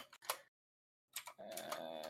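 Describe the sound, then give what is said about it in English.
Fairly quiet typing on a computer keyboard in short bursts of clicks, a pause, then a busier flurry of keystrokes, with no one talking. “while John's typing that”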